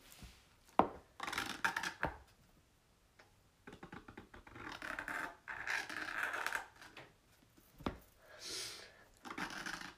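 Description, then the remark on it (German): A green felt-tip pen squeaks and scratches across paper, writing the word Birthday, in a series of short, irregular strokes, separated by brief pauses and a few sharp taps, with no talking. “Und an der Seite schreibe ich jetzt Birthday. Und ich würde sagen mit Grün, weil Grün sieht ganz cool aus.”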